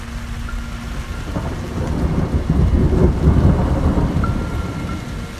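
A summer thunderstorm: steady heavy rain hisses throughout while deep thunder rumbles swell and roll loudly through the middle, with no voices.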